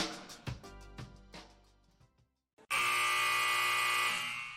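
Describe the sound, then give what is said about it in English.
A few bouncing, ringing thuds with a short echo die away into near silence, then a loud, harsh final buzzer blares continuously for nearly two seconds, filling the space with a raspy electric drone. “The sound of the final buzzer means it's hangover time so grab a drink and join your host,”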